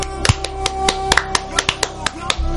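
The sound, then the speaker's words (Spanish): A short burst of hand claps applauding a fellow participant, called a comrade, during a talk about the Yu-Gi-Oh! trading card game: about a dozen sharp, bright slaps at an irregular pace, heard over a steady low hum with faint voices in the background. “Un aplauso para nuestro camarada.”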